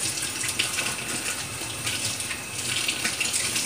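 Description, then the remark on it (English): Steady running cool tap water pours, a continuous hiss with faint splashing as cilantro leaves are rinsed beneath the stream, with no voices. “I run it under cool water.”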